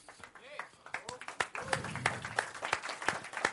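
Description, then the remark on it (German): An audience at a live show applauds a winner being officially presented a prize, with dense, irregular sharp claps building after a brief start and continuing steadily. Voices can be heard talking and calling out beneath the clapping. “Zu Recht der Applaus.”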